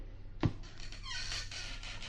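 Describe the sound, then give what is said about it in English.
A sharp knock or latch click, then a long, wavering squeaky creak as a trap door swings open, moderately loud, with no talking. “Now we'll open the trap door.”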